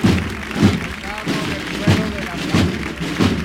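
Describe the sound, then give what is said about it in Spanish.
Heavy wooden thumps as a procession float is lowered to the ground, five dull low knocks at a steady rhythm over a murmuring crowd. “La posamos en el suelo.”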